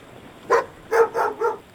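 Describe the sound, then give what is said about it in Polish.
A seagull calls four times in quick, uneven succession, each cry short, loud and harsh with a nasal, barking edge, over faint background hiss. “O, to chyba mewa. Super, to oznacza, że jesteśmy już blisko.”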